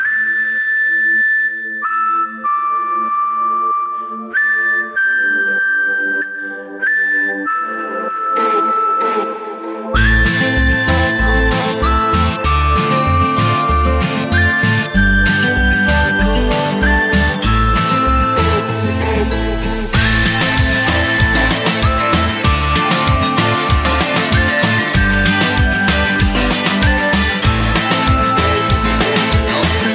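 A song plays on a radio programme, loud and clear, opening with a light whistle-like melody over soft backing before drums and a full band kick in, the arrangement growing busier and denser as it goes.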